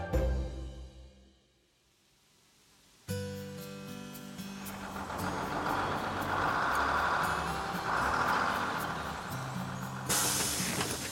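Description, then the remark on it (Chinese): A large bus carrying a group of primary schoolchildren drives up one morning, its engine a low droning hum that builds and holds steady, then a sharp hiss of air brakes releases as it stops in front of a shelter. “某天早晨，载着一群小学生的大巴士在收容所前停下”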